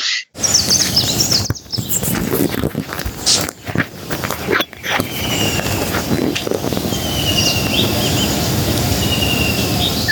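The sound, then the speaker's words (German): Birds in India chirp and call continuously over a dense, noisy outdoor background, with bright high-pitched tweets scattered throughout and a few brief dips in the din. “Wir haben da Vögel gesehen, das ist unglaublich.”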